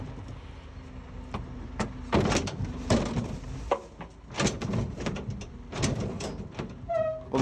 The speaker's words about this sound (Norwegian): Da hører vi søppelbilen kjøre av gårde.